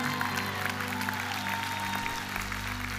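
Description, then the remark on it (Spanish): Sustained audience applause for the Venezuelans, many hands clapping together in a dense, steady wash throughout, fairly loud, with a low hum underneath and no voices standing out. “Den un aplauso a los venezolanos.”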